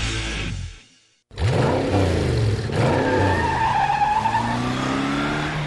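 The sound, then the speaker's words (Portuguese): A car engine revs loudly with rising and falling whines, broken by a brief silence, followed by screeching tire skids over a continuous roaring motor. No one speaks. “Sem a magia do cinema, isso seria só um motorista furioso.”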